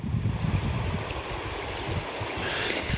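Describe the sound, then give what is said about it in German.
River water rushes steadily below a bridge into the Užupis district of Vilnius, Lithuania, where the river forms the district's border, a continuous broad wash of flowing water with a low rumbling undertone, unbroken, with no voices over it. “So practically the river makes the border between der Fluss bildet sozusagen die Grenze zwischen der Republik Litauen und der Republik Ushupis.”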